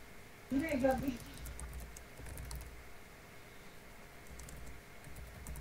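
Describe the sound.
Soft, quick keyboard taps clatter on and off in an irregular run as someone types a message, with a brief burst of voice near the start and a low background hum.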